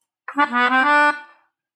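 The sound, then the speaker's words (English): A single sustained note from a melodica bought online and held in the hand, reedy and bright with a slightly wavering start, played fairly loud for about a second before cutting off into silence. “your, your topic here is melodica purchased online.”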